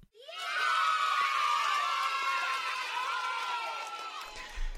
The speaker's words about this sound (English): Let's give Dannii a big round of applause for braving the Squiz Kids hot seat today.